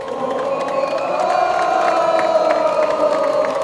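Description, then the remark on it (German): A crowd of about 2,000 people cheers and shouts at a rock concert opening the Gießen Kultursommer festival on the Schiffenberg monastery grounds, a dense wash of voices with high whoops poking through, holding at full loudness for several seconds. “Etwa 2000 Menschen haben auf dem Klostergelände Schiffenberg mitgerockt und gefeiert”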